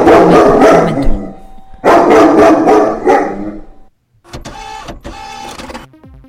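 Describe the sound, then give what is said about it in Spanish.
A female dog, not a small breed, barks and snarls aggressively with a hoarse voice in two loud, sustained bursts, followed by a quieter stretch of sharp, clipped yaps. “es mi perro”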